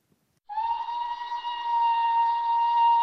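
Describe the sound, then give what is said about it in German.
A steam whistle at a whaling station around 6:30 in the morning in May 1916, rousing the men from their beds, starts abruptly after a brief silence and holds a steady, loud, sustained tone with rich overtones, blowing continuously to the end with no voices. “Gegen 6.30 Uhr meine ich, den Pfiff einer Dampfpfeife zu hören – ich will es kaum glauben, aber ich weiß, dass die Männer in der Walfangstation um diese Zeit aus den Betten geholt werden.”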